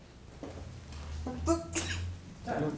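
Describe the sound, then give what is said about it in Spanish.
A single sharp sneeze bursts out near the middle of a sermon, a quick breathy blast over a low steady hum, with faint voice-like sounds before and after it. “Salud.”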